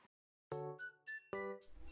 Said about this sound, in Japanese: はい、びっくりさせてしまってごめんなさい。これは震度4以上の地震が来た時に携帯から流れるアラームです。